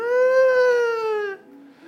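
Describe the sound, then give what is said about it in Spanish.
A voice imitating a little girl crying in a TikTok video: one sustained, wavering wail with a bright, strained tone, fairly loud, trailing off into a softer, lower sound near the end. “La nena está llorando y el nene está comiendo.”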